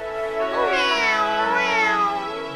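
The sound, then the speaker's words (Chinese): A cat meows in a long, drawn-out, plaintive way, its voice rising and falling through two or three wavering swells. Loud and continuous, with no talking over it. “哦，我美丽的小猫怎么了？”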